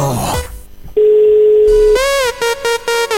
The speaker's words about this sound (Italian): Squilla eh ma non risponde un attimo Verifichiamo eh eh, ha mandato una chiamata indietro.